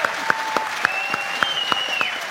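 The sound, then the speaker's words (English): A crowd applauds the Goodies steadily, the dense clapping punctuated by sharper claps falling in a regular rhythmic beat, with a faint high whistle drifting through the noise. “Ladies and gentlemen, let's hear it for the goodies.”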